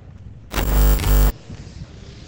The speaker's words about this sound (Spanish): Por cierto, no es una segadora, es una desbrozadora, lo que suena ahora.